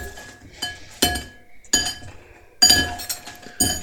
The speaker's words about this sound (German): Okay, cool, das reicht und klimpert auch tierisch. Wir haben nämlich hier auch Messer und Gabel, äh, Messer und Löffel liegen. Also eigentlich ist es eine Gabel, aber. Gabel und Löffel.